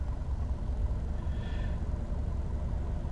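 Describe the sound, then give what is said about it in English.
A steady, continuous low rumble of a car engine and road noise from inside a moving vehicle, fairly loud and unchanging, with no voices. “I wonder if people are gonna hear me yelling in their in my car and they're like, what's he yelling about?”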